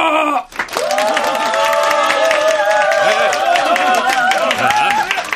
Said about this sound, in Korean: 일동 차례 사장님께 박수.